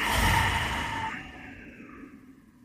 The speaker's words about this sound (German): Das heißt, ihr schließt die Augen wir atmen ein und aus.